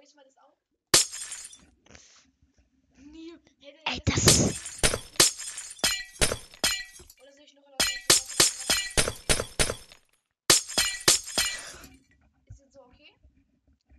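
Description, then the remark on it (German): Repeated sharp, glassy breaking and clinking sounds of a video game block being mined, coming in loud rapid bursts with brief pauses, alongside a few short spoken words. “Baue, baue ich mal den Block ab.”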